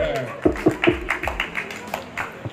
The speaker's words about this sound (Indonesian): tepuk tangan dong tepuk tangan dong